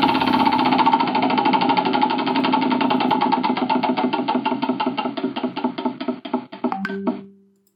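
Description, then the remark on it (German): A prize wheel used as a buzzword generator spins with a rapid stream of loud clicks that gradually slow and space out, ending with a short ringing chime as it stops. No voices are heard. “Ich muss erstmal die Lautstärke ein bisschen hochdrehen, damit du auch hörst, wenn ich am Rad drehe.”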